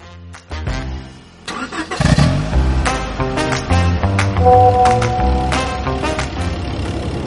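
A few sharp clicks, then a car engine cranks and roars to life, settling into a steady, rumbling idle with slight revving. No one speaks.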